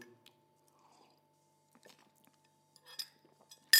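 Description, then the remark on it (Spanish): Someone sips coffee from a cup: soft, scattered mouth and slurping noises, then a brief louder clink of the cup at the very end, with no talking. “Voy a tomar un sorbo de mi cafecito.”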